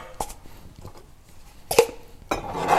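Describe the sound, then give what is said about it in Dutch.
Glasses clink and knock against each other in a few sharp, bright bursts, with quieter rattling between them as one glass for hot drinks is taken out of a crowded collection of glasses. “Dus ik pak er één. Oh, oh, freaking hell, ik maak er zoveel herrie.”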